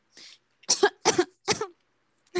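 A harsh coughing fit: a faint cough followed by three loud, rasping coughs in quick succession, with another just starting at the end. No speech is heard.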